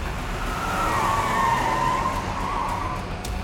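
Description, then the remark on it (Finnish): A Mercedes car's engine roars under hard acceleration through an open gate while its tires let out a long, loud squeal that wavers slightly in pitch, with no one speaking. “Kuulen taustalla Mersun kiihdyttävän ja renkaiden ulvovan.”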